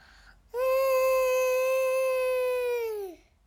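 A very wild fox, heard far away, lets out one long, steady wailing call that holds its pitch for a couple of seconds, then sags and fades at the end; no other sounds or voices accompany it.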